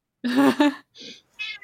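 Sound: cat meowing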